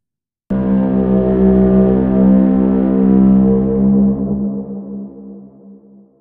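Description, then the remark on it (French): A loud, layered sound-design drone blends a deep boat rumble with a buzzing didgeridoo tone. It starts abruptly, holds steady, then slowly fades out, with no voices. “Si vous avez bien suivi, voilà maintenant les deux sons superposés, du bateau et du didgeridoo, de la version deuxième partie du son tripode final.”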